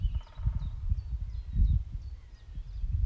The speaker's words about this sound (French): en profitant de l'énergie des oiseaux, de l'énergie des chevaux qui sont ici tout près, de l'énergie du pivert qui sont des énergies de soutien.